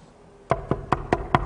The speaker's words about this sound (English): Knocked on the door.